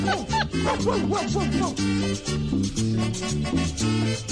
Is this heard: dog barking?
yes